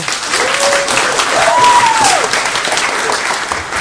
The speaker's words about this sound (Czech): Nebo můžete tleskat. Tleskejte, tleskejte, tleskejte, tleskejte hodně